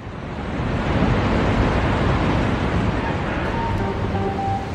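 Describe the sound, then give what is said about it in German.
A loud, continuous roar of rushing water pours out of the destroyed dam of the Kakhovka reservoir in Ukraine, a dense, steady torrent with no pauses and no voices. “Es sind Unmengen von Wassermassen, die seit heute Nacht aus dem ukrainischen Kachowka-Stausee auslaufen.”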